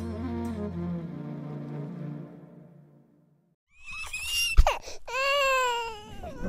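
A baby fusses with whiny, wavering cries and whimpers, close and fairly loud, after a stretch of sustained low tonal sound fades to a brief silence.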